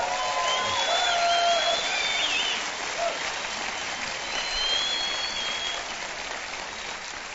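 A crowd claps steadily and fairly loudly for several seconds to welcome listeners on about 300 radio stations around America, a dense wash of many hands with a few whistles and whoops rising above it, fading slightly toward the end.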